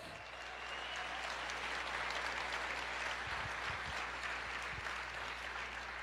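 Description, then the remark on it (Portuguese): A church audience applauds the Lord steadily for several seconds, a dense wash of many hands clapping at once, evenly sustained at moderate loudness with no voices standing out. “Você pode aplaudir o Senhor e dizer: Eu creio.”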